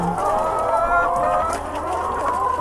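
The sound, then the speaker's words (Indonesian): Several chickens in a coop cluck continuously while eggs are collected, overlapping squawks and murmurs forming a busy, steady layer of poultry noise with a low rumble underneath. “sambil ambil telur telur ayam tiap hari ini ya suara ayam-ayam ini aku anggap backsound lah”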